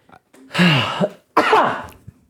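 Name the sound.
cough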